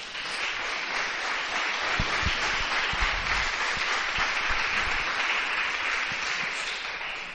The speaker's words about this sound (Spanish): Dele un aplauso al Señor en esta tarde.